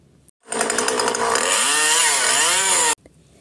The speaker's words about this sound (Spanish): Encendieron unas máquinas que hacían muchísimo ruido y cortaban los pobres árboles, dejándolo todo destruido.